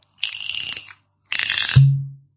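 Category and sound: household object, whisky bottle being opened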